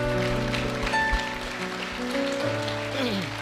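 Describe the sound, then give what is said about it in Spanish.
A church audience gives a big round of applause to Jesus in a steady, dense wash of clapping that lasts throughout, with sustained keyboard or organ chords playing underneath. “Dale ese aplauso grande a Jesús.”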